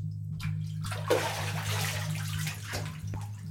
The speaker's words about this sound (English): How's it going in there? I shout through the bathroom, from which I can still hear the sounds of playful splashing. Tub's almost full, Dad.